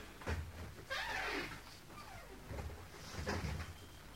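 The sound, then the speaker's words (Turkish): At night, Bilal unlocks and opens a door for Abu Bakr: a sharp click, a longer scraping creak as it swings, then another latch-like clunk, all fairly quiet with no voices. “Aç şu kapıyı. Tamam geliyorum.”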